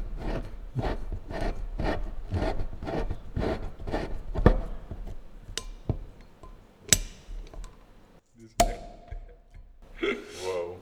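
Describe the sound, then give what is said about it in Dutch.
A cork is worked out of a wine bottle: a steady run of rhythmic squeaky rasps, then sharp glassy clicks and a soft pop, with a brief voice sound at the end. “En de kurk heeft zin, want die wil er heel graag uitkomen.”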